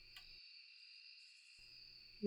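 A quiet forest night: a steady, high insect trill of crickets hums continuously in the background, with a faint low rumble at the start and end.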